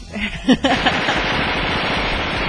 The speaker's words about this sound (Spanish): Échate unos disparos, mi moy.